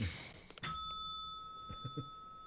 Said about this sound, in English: Ring the bell.